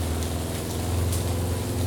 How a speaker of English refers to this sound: Ford Anglia, by the sound of the engine. Lovely car. I had one for a while.